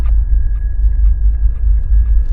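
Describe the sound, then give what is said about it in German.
A bicycle bell as it would sound on Mars, simulated, rings as a dull, muffled, faint steady tone over heavy, continuous low rumble, as if heard through a wall, with no voices. “Es klingt viel dumpfer, ein bisschen so, als würde es durch eine Wand hindurch aufgenommen.”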